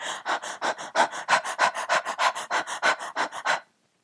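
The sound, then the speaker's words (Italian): Rapid, forced hyperventilation breathing, about twenty quick, evenly spaced breaths in and out over a few seconds, fairly loud, stopping abruptly into silence. “Tant'è che se voi provate a fare una iperventilazione forzata, quindi per qualche respiro, a provare a respirare molto rapidamente,”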